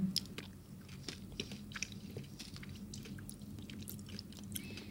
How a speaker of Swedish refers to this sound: Nu tar jag en bit av den andra. Mm.